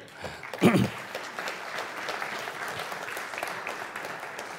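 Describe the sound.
Audience applause, a steady patter of many hands clapping throughout, with a brief louder burst near the start and a faint voice rising over it early on.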